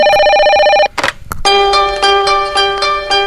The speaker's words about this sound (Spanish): Está entrando un llamado.